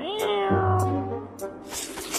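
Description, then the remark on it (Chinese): A cat that has been hit lets out one long, loud, wavering yowl, its pitch bending downward as it drags on, with scratchy noisy bursts toward the end. “不给东西吃还打猫，真是太坏了！”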